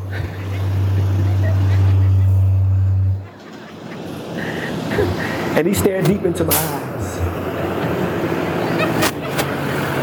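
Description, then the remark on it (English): A truck rumbles past with a loud, low engine drone for about three seconds, then cuts off abruptly while a man keeps talking over and after it. “As this truck drives past at the apex of my story, right at the punchline”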